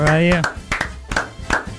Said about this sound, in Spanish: queremos hacer ese aplauso cerrado oh, y cálido porque hoy